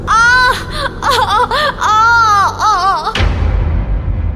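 A woman's loud, high-pitched scream rises and wavers in several anguished bursts for about three seconds, then cuts off into a low, noisy rumble. It is heard in the dark during a power cut across a housing society.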